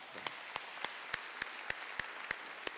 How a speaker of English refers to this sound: Can you give God a round of applause?